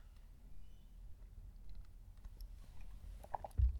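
food or drink, sipping coffee

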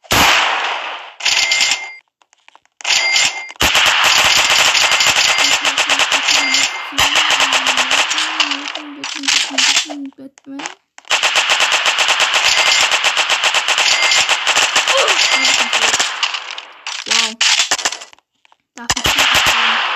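sound effect, machine gun firing

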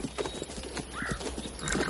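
animal, horse hooves clip-clopping

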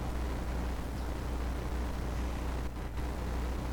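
vehicle, car interior road noise

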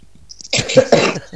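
human body sound, coughing

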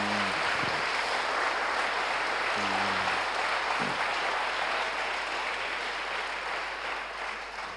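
crowd, loud applause

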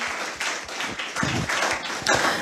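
crowd, applause

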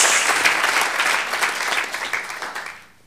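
crowd, audience applause

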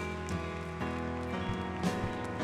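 crowd, audience applauding

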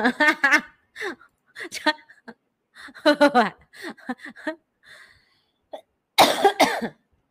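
human body sound, repeated coughing

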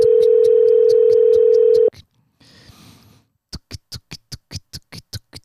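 signal or alarm, phone call ringback tone

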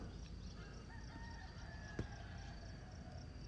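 bird, roosters crowing

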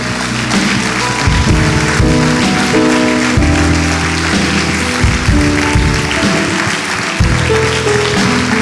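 crowd, audience applauding

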